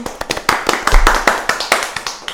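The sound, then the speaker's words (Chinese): A short burst of applause from a small group welcoming the guests, a student curatorial team, at a promotional event for an arts management department production, with sharp, irregular hand claps overlapping into a steady patter, fairly loud, with no one talking over it. “好，掌声欢迎他们。”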